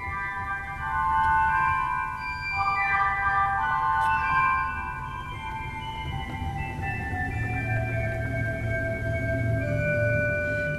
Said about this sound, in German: Das mehrweite Nachthorn, die Traversflöte, die wir gerade gehört haben, die eben dann im Prinzip schon diesen überblasenden äh, Ton hat, den wir von der Querflöte kennen